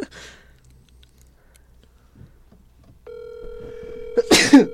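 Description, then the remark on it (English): One loud sneeze bursts out near the end, heard over a steady, droning telephone dial tone that starts partway through. No one is talking. “Bless you.”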